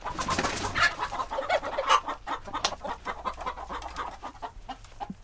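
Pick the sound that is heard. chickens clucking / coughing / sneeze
chickens clucking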